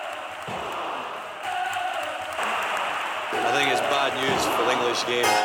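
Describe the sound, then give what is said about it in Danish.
A large crowd of Brøndby football fans chants and cheers in a stadium at a 1995 match against Liverpool, voices blending into a loud, dense roar that swells steadily louder over several seconds. “tilskuer, bum, bum, bum, bum, det er Brøndby-fans.”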